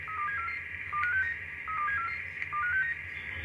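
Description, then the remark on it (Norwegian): A ship's radio calls Bodø Radio coast station with three repeated bursts of quick, stepped electronic beeps over a steady band of static hiss. No one speaks. “Vi hører også her eh, at det er kontakt med Bodø radio.”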